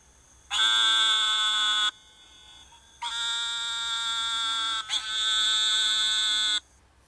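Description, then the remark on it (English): Three long, nasal buzzing calls of an eastern narrowmouth toad (Gastrophryne carolinensis), each lasting over a second with short gaps between, loud, resembling a bleating electric buzzer, with no talking. “I think this is the eastern narrowmouth toad. Eastern narrowmouth toad, Gastrophryne carolinensis.”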